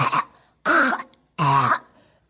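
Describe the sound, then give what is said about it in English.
Three harsh, hacking coughs from a female foster dog with kennel cough, loud, each a short raspy burst separated by brief pauses, with no talking. “And I'm sorry if you guys have heard her hacking it in the in the background. She's got kennel her? cough.”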